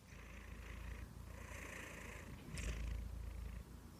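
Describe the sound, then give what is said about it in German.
A male cat with an oddly shaped nose purrs steadily, its rumble pulsing through loud, rhythmic breaths in and out, with a brief rustle near the end and no voices. “Der, der atmet doch so laut, der hat doch eine, äh, eine komische Nase.”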